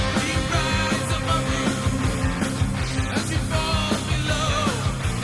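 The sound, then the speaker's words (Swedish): A dense, loud hard rock passage with steady pounding drums, thick distorted guitars and a sung vocal line riding on top, playing continuously at an even, driving tempo. “Men det är det här som man kallar för vanlig hårdrock.”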